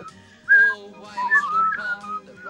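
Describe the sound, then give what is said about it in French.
Someone whistles a cheerful melody, the clear notes gliding up and down in short phrases, with a soft, steady accompaniment humming underneath. “Sifflez avec moi les copains de Parjupidémie.”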